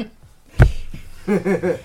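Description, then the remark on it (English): A single muffled slap of a person's palm hitting their own face in a facepalm, a quick fleshy thump that fades fast, followed by a short voiced murmur. “that was the sound of him face palming for all of you that can't see him.”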